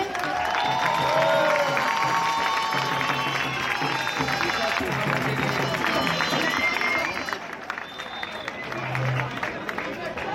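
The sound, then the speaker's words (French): A large crowd claps and cheers loudly and steadily for representatives of the Fédération autonome de la fonction publique, with whistles and shouts mixed into dense applause that fades slightly near the end. “Un applaudissement pour eux, s'il vous plaît.”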